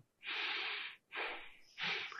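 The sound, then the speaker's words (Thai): Three strong, hissy breaths pushed through the nose, alternating in and out, with short pauses between, the first one longest; a demonstration during anapanasati (mindfulness of breathing) meditation practice, breathing hard two or three times to feel the air at the nose. “เราลองทดลองดูสมมติเราหายใจแรงๆเข้าๆออกสักสองสามครั้ง”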